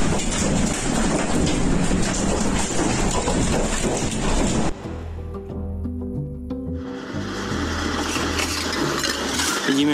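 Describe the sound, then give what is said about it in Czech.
Loud, continuous scraping and gritty clattering as apparently the house owner drags a shovel through broken roof tiles around a car, clearing away the pieces, briefly giving way to a low droning hum before the rough scraping resumes. “tady zřejmě majitele domu odklízí popané střešní tašky lopatou, se snaží aspoň odházet ty kusy, které jsou okolo auta.”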